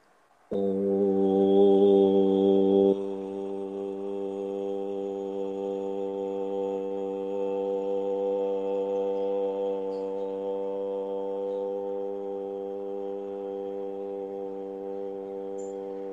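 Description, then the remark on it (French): A group of voices chants a long, sustained "om" in unison, a rich low drone with layered harmonics that begins abruptly, swells briefly louder, then holds steady for over ten seconds. “On va faire un home.”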